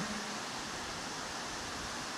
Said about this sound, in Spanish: Así como la lluvia se está soltando con todo, violenta. Señor, guárdanos porque siento que hasta la luz se va a querer ir.